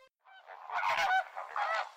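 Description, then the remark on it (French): A flock of flamingos honks and gabbles in a dense, overlapping chorus, loud, with nasal calls rising and falling continuously for about two seconds. “Écoute un peu, quel merveilleux chant. Et regarde un peu, quelle merveilleuse danse. Découvrons ensemble, si tu le permets, le flamant rose.”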